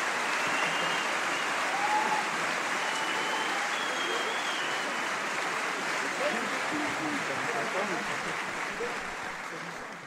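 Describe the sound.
Sustained crowd applause for the Symphonia Pop Orchestra, a dense wash of many hands clapping steadily for about ten seconds, staying loud throughout and tapering slightly at the very end, with faint voices mixed in.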